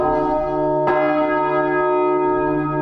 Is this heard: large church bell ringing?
yes